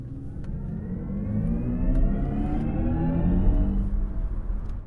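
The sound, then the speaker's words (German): An electric car's synthetic sound in its selectable Sport 'My Mode' swells steadily, layered humming tones rising in pitch like an accelerating engine, loud and continuous with no one speaking. “Wenn ich jetzt auf Sport gehen würde,”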